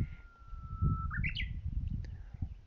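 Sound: japanese bush warbler singing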